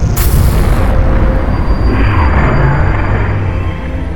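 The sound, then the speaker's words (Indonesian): A loud, booming explosion bursts out at once and rolls on as a heavy, rumbling roar, slowly fading over a few seconds with no voices present. “kopi tak berguna kamu jadi semacam Big Bang di kepala meledak.”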